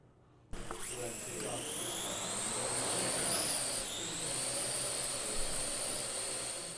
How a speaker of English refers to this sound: As Ohio University students walk to class, they may notice something flying overhead. Look, up in the sky, it's a bird, it's a plane, it's a drone. A drone is a remote controlled, pilotless aircraft, sometimes used with a camera.